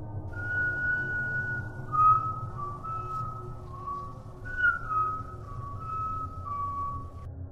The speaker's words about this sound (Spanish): El silbador tiene la misma melodía todas las noches. Es alegre.